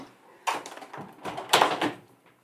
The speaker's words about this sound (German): Ich mache mal kurz Fenster zu, weil der Hund bellt da draußen gerade so laut.